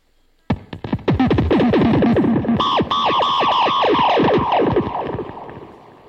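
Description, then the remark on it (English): A guitar effects pedal, triggered by the strings of a guitar plugged into it, spits out a rapid string of retro Atari-like bleeps, each a quick downward-sliding electronic zap, loud and buzzy, tumbling over one another before tapering off. No talking. “It basically, basically gives you like the old Atari sounds.”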